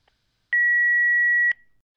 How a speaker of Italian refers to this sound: lasciate un messaggio dopo il segnale acustico.